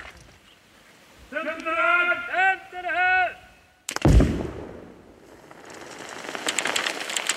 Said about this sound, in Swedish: En gnista letar sig blixtsnabbt fram genom sladden som går ner i sandhögen. Explosionen blir stor, smällen stark och dov.